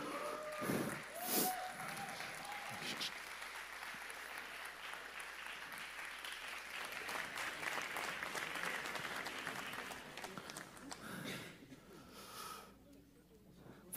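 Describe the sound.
An audience keeps applauding as a couple comes to join the speaker at the front, a dense wash of many hands clapping that holds for the whole stretch, with a few voices mixed in early and the clapping thinning slightly toward the end.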